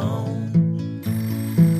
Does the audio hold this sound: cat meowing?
no